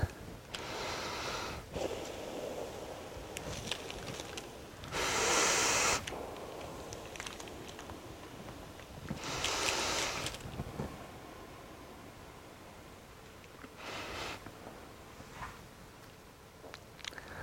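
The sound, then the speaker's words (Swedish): Several forceful breaths blown through a hose inserted down a windpipe to inflate lungs, each a breathy rush of air lasting about a second, spaced a few seconds apart with quiet, faintly noisy gaps between them. “Och så ska jag med några andetag här försöka blåsa upp lungorna.”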